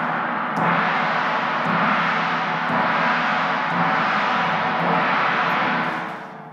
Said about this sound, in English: I am only a resounding gong or a clanging cymbal. I've got my gong with me here today.